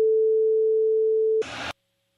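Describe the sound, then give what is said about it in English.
A single steady electronic beep holds one pitch for about a second and a half, then cuts to a short burst of harsh static before silence. “Someone to interpret all the beeps?”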